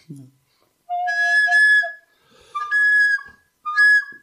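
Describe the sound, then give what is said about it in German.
A recorder-like flute is played with at least two finger holes deliberately not fully covered: three shrill, breathy phrases of held notes that jump and wobble between pitches. Fairly loud, with no talking. “Das ist ganz wichtig, dass ähm, zumindest zwei Löcher ein bisschen nicht komplett bedeckt sind. Sonst hört sich's am Ende noch gut an.”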